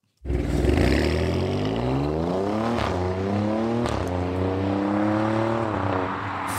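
The 510 hp V6 engine of an Alfa Romeo Stelvio Quadrivoglio SUV accelerates hard through several gears during a test drive, its low roar climbing in pitch, dropping briefly at each upshift, then rising again. Loud and continuous, with no talking.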